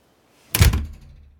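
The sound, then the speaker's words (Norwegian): The wooden door of a treehouse in a large birch tree shuts with a single solid thud, its heavy low knock fading into a short rumbling decay. No voices are heard. “For å komme opp dit må de klatre i en taustige, og de rekker akkurat å komme seg inn og lukke døra før trollet står rett utenfor.”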